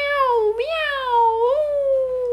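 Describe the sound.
A voice imitates a cat with a single long, drawn-out meow, high and steady with two small upward swoops in pitch before it trails off. It is fairly loud and heard on its own.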